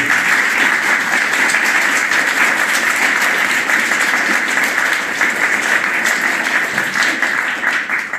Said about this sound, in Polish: Przed nami największe wydarzenie, myślę, dzisiejszego renesansu superbohaterów nagrany na żywo specjalny odcinek e, Comics Weekly e, z udziałem publiczności. Żeby było słychać publiczność, może przywitajmy ekipę gorącymi brawami w Toruniu.